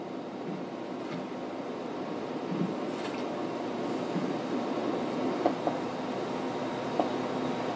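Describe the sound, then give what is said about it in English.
A vehicle rumbles steadily throughout, a broad continuous drone with occasional faint clicks and clatters on top, moderately loud, with no one talking. “oh, I hear a vehicle.”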